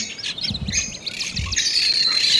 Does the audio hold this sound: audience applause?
no